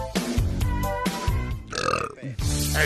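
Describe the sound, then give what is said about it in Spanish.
A run of loud, croaking burps, three or four deep voiced belches in quick succession with rough, throaty tones between them. “Ah, sin eructos.”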